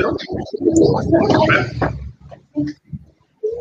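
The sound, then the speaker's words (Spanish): A voice comes through garbled and distorted, a warbling, gurgling stream of unintelligible speech-like sound, loud and continuous for about two seconds, then breaking into a few short choppy bursts. “Se escuchó un poco viciado ahí.”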